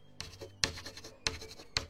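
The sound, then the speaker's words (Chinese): Chalk scratching across a blackboard in several short, gritty strokes as a music teacher writes the titles of three songs in a classroom, each starting with a sharp tap and a bright, hissy scrape. Fairly quiet, with no voices. “手里拿着粉笔，把他教过了那三首歌写在黑板上。”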